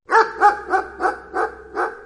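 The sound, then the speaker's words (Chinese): A black dog barks frantically at night under moonlight, six loud, rapid barks in a steady, insistent rhythm, each with a harsh, mid-pitched tone, over a faint low hum and no voices. “夜深了，月光下的黑狗红着眼睛，发了疯似的一直叫个不停。”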